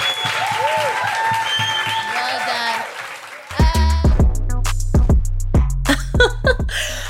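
An audience applauds loudly for the evening's guests, with cheering and high whoops over the clapping. Partway through, a punchy beat with deep bass cuts in and carries to the end.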